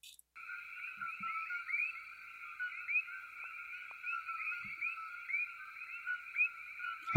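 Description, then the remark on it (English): A dense chorus of coqui frogs calls continuously, layered high chirps and two-note whistles overlapping in a steady, shimmering wall of sound with no voices present. “Uh, here we have some coqui frogs that have sim- a similar frequency.”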